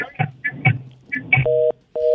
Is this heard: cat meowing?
no